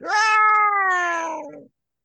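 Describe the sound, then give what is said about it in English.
A single loud, ear-piercing shriek, a strident, wailing yowl echoing off buildings from no clear direction, holding its pitch then sagging slightly before cutting off after under two seconds, with no voices. “from somewhere you can't exactly tell where because it's echoing on all the buildings you hear two very distinctive shrieks like ungodly ear piercing shrieks”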